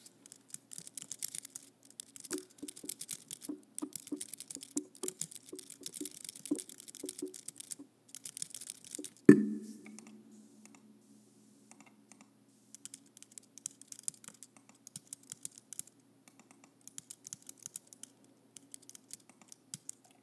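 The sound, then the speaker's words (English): Quiet keyboard typing in quick bursts of clicks, with one heavier thud partway through, after which the keystrokes become sparser and more hesitant. No one speaks. “mostly it'll just be keyboard typing.”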